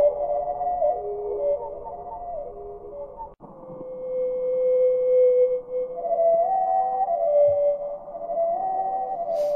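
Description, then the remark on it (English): A slowed-down North American hermit thrush song: deep, drawn-out flute-like tones that slide and waver in long melodic phrases, with a brief break partway through. No voices. “Uh, we're going to hear it at normal speed and then slowed down.”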